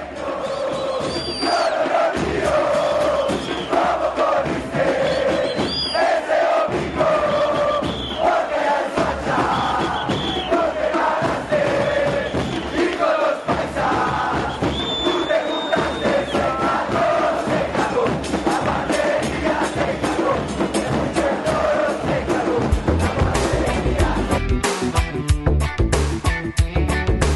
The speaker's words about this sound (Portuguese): La Guarderia Se Cagou é a música 5, é a música que a torcida do Milionários dedica aos seus rivais do Santa Fé.